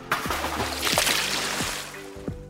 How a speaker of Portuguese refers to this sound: Para evitar a caída, se agarrou no balde mas não adiantou muito, pois caiu e ainda por cima tomou um balde de água fria.